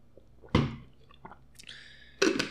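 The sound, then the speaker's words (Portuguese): Wet ASMR mouth sounds of someone drinking water: two loud gulping swallows about a second and a half apart, with softer sips and a faint liquid trickle between them, no talking. “ASMR bebendo água.”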